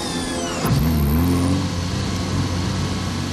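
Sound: car accelerating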